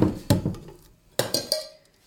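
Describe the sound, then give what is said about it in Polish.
A metal utensil scrapes and clinks inside a pot as fats are carefully scraped out so nothing is left, with a few sharp knocks against the sides between softer scraping strokes, with no talking. “Teraz dodam tłuszcze starannie wybierając z garnka, żeby nic nie zostało.”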